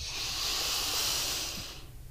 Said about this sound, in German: Ähm, da stelle ich mir vor, dass in meinem Bauch ein Luftballon ist und ich atme durch die Nase ein und versuche, diesen Luftballon in meinem Bauch ganz dick zu machen.